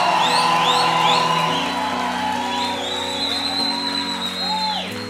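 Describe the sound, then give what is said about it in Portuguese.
A large church audience shouts and cheers as loudly as they can, continuously, with high whoops and whistles rising above the roar and held musical tones sustained underneath. “Se você crê, enche o seu peito. Grite o mais alto que você puder.”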